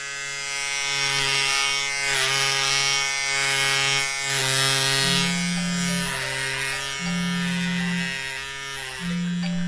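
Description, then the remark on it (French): A loud electric hair clipper buzzes steadily during a haircut, its motor pitch shifting up and down in short stretches as it trims the back of a neck. No one speaks. “Un petit coup de tondeuse au niveau de la nuque.”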